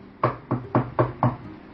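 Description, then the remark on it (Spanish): Five firm knocks on a wooden shop door, evenly spaced in a quick steady rhythm, each a dull thud with a short sharp attack, with no voices. “Y levantaron el vuelo, cruzaron el río y fueron a golpear a un almacén.”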